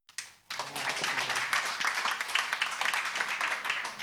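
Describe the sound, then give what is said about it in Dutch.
An audience breaks into applause, a dense, steady wash of many hands clapping that starts abruptly after a brief pause and holds at a loud, even level. “Applaus.”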